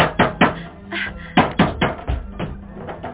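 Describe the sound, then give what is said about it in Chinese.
Someone knocks on a door to be let in, in heavy, irregular thumps, often two blows close together, repeating about six times over three seconds, with a faint low hum between the hits. “怎么搞的啊？怎么这么久才开门呢？”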